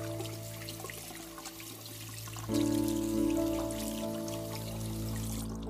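Bathroom taps running with a steady rush of water and a faint pipe hum; the flow swells louder partway through as a tap opens further, continuing without any voices.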